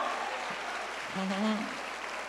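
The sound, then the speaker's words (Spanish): An audience applauds for God in a steady, dense wash of clapping that fills the whole stretch, with a single voice briefly calling out over it midway. “Si usted lo cree, denle un aplauso fuerte a Dios ahora.”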